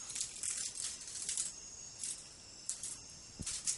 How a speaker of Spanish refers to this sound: Se alborotó la chicharra. Podcast en la selva. Podcast en la selva. Bueno, es que aquí en la selva hay mucho bicho. Entenderán ustedes.